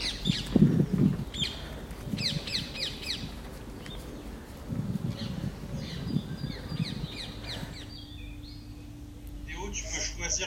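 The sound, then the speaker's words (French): Clusters of bright bird chirps repeat over a quiet Paris street under lockdown on a Saturday late afternoon, around 5 pm, with a low hum and faint murmuring voices in the background and no traffic noise. “Paris sous confinement, un samedi en fin d'après-midi, normalement c'est blindé de monde et de voitures, et voilà ce qu'on entend.”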